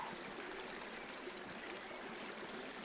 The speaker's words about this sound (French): Vous êtes maintenant descendu au cœur de la vallée, dans une clairière, et la rivière continue de s'écouler, paisiblement.